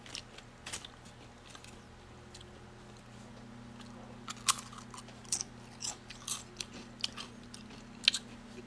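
Crisp, crackly bites into crunchy Lay's American Classic original-flavour potato chips followed by a run of irregular chewing crunches, sharp bursts over a low steady hum, with no talking.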